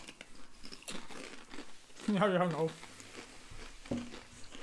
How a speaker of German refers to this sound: Man hört auch nicht das Gekrasche von der Tüte. Nein, niemals. Vielleicht sollten wir aufhören, Chips zu essen, okay, jetzt, jetzt.